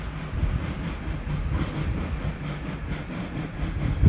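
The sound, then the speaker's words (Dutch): A train rolls past on the tracks, a steady, fairly loud low rumble with a rattling roar that holds throughout and swells slightly at the end. No one speaks. “Hij rijdt daar op dat ene dingetje. Oh, maar die rijdt er al de hele tijd of zo.”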